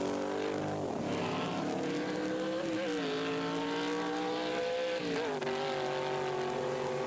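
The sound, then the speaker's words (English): Drag racing cars launch in a heat won by the B Factory Experimental car over the modified sports car, with a loud, sustained engine roar, the pitch climbing steadily and dipping briefly at a couple of gear shifts. No one speaks. “B Factory Experimental takes the modified sports car, and the stage is set for the final elimination.”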